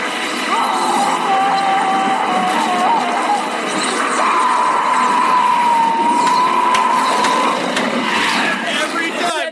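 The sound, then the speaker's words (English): A high-pitched cartoonish scream by the movie character Hector at the end of the movie, as Parallax sucks his fear skeleton out of him, held in two long wavering wails, the second one longer, over a loud, dense rumble of chaotic background noise. “We have a clip where he just loves the high pitched uh. scream in this”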